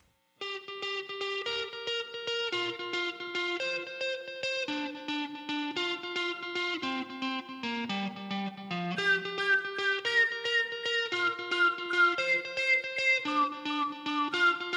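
A rock band plays an instrumental passage with heavily distorted, effects-laden electric guitar chords over a steady beat, loud throughout and swelling fuller in the second half, with no singing yet.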